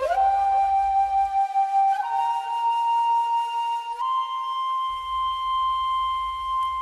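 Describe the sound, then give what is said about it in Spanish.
A Japanese shakuhachi, a breathy end-blown straight bamboo flute, plays sustained notes, bending up into the first and stepping higher at about two and four seconds, with a low background rumble. “Y si de la India nos quedamos en Asia, pero nos vamos al Japón, hay una flauta muy famosa, la shakuhachi, que eh, es una flauta, no es una flauta traversa, es una flauta recta y que suena más o menos así.”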